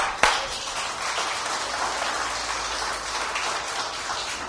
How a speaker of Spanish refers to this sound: En un aplauso al Señor.